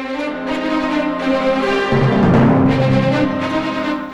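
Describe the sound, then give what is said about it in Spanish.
Lively folk harp music plays loud, with rapid plucked notes ringing over a steady bass line; a well-known classic folk piece performed on harp. No voices are heard. “que escuchábamos hace un momento es el famoso Pájaro Chowí en una interpretación de arpa”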